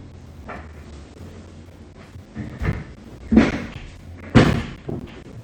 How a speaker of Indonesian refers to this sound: kayak kursi aku terlalu turun deh bentar aku naikin kursi dulu ya